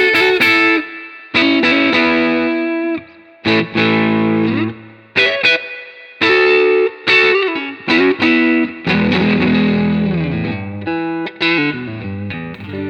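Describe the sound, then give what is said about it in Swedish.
An electric guitar fitted with Ron Ellis pickups, a 50T and a Midtall, played with distortion and effects: loud chords and single notes in bursts with short pauses, rich in overtones and sustained ringing, with no voices. “jag sitter ju med hörlurar nu och hör när du spelar och jag hör ju att det blir rundare då”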